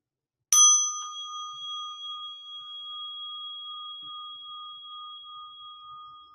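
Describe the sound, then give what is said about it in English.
A single meditation bell is struck once, ringing out with a clear, bright tone that sustains and slowly fades over several seconds in otherwise quiet surroundings. “Allowing the sound of the bell to serve as a call to presence right here, right now, in this moment.”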